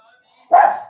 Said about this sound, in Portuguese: a Mel tá latindo aqui